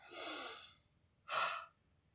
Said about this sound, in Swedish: Och så kan du ta ett kort utandetag genom munnen till exempel. För att munandning är ju mer stressande än näsandning.